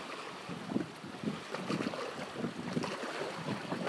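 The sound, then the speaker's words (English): Steady wind blowing on a cloudy but bright morning with no rain, with a broad, rushing hiss and irregular low buffeting gusts, continuous throughout with no voices. “A lot of wind, no rain.”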